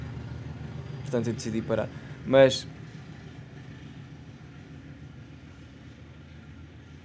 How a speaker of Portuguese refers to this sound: Ei, está a passar um comboio.